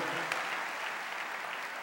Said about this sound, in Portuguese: Então aplauda o Senhor bem forte. Fica de pé, por favor.